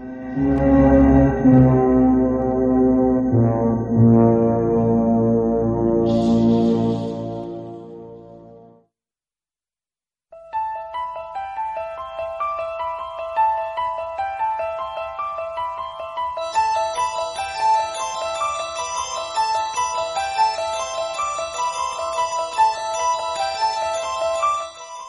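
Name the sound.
horror film soundtrack music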